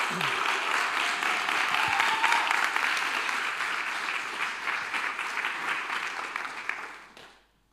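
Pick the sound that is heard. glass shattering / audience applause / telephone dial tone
audience applause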